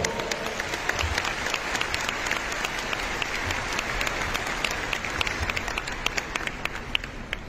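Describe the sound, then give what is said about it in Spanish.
Sustained applause from an audience, a dense, steady wash of many hands clapping at an even loudness for several seconds, with no one speaking over it. “Bien, un aplauso para la Virgen María, por favor.”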